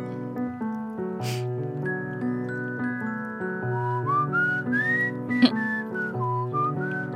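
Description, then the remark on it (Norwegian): Someone whistles a wavering, sliding melody over steady piano chords, the whistled tune rising into the foreground partway through and carrying on alongside the accompaniment. “Plystring.”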